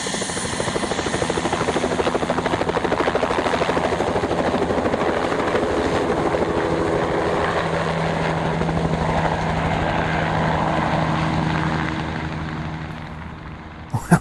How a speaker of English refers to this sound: for the first time in a helicopter, and the door is off